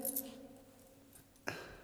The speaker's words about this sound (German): Zuerst wollen wir der jungen Dame mal die Schlüssel abnehmen, sonst wird das nochmal vergessen, darf ich bitten? Hier.